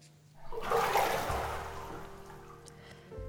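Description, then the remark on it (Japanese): A loud rush of hot water surges in and splashes, then subsides into a steady pouring and draining hiss before fading, with a low hum underneath and no voices. “じゃあお湯がね今ザバーンって流れた音が皆様聞こえたでしょうか”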